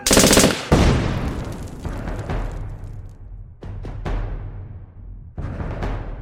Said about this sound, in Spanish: Una ametralladora disparó una ráfaga y luego resonó una fuerte detonación. Y todo quedó en silencio.